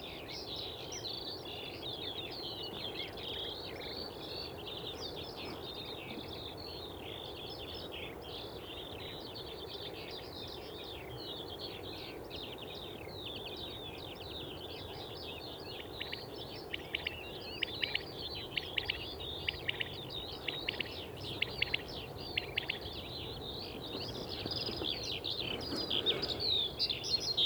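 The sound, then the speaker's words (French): Dawn chorus of skylark and common quail recorded at 4:30 in the morning on 22 May 2019 in the Drôme: an unbroken stream of high, fluttering trills and warbles over a soft low rumble, with a few sharper, louder calls breaking through later on. “Et ce matin, c'est Down Chorus, Alouette des Champs et Caille des Blés.”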